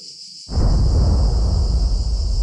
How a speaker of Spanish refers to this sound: Una explosión en el mar espanta una gaviota que sale volando, y junto a ella nosotros también lo hacemos.